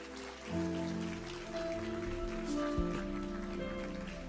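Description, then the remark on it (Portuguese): An audience at an evening church service applauds loudly for the Holy Spirit of God, a dense, crackling wash of clapping that swells after a brief pause and holds at a fairly loud level, with sustained musical tones underneath. “Você pode aplaudir bem forte ao Espírito Santo de Deus?”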